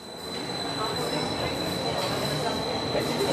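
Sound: subway train riding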